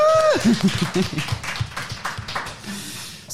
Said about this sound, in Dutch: Maar wij zitten hier, hè? En het publiek is hier. Misschien moeten wij eens een applaus voor het publiek geven. Woe!